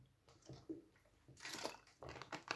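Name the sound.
drinking water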